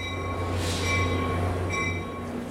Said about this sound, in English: we're standing here at the Hoboken train station in Hoboken, New Jersey